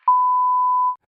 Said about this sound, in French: Bonjour, vous êtes bien sur la messagerie vocale de C'est quand la pause. Veuillez laisser votre message après le bip et nous vous rappellerons dès que possible.